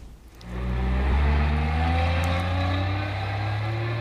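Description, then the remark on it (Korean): A city bus at a stop: its engine kicks in after a brief quiet moment and holds a steady, loud diesel rumble with a droning hum for several seconds. No voices are heard. “팀장님, 버스 안 타세요?”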